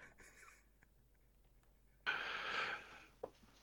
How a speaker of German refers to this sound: Breit, ja, es war schon sehr breites Grinsen ja, und vorher ein Schnauben.